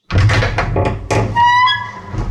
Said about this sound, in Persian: فردای اون روز ملخ وقتی داشت لابلای لوازم آشپزخونه دنبال لیوان میگشت در خونش به صدا در اومد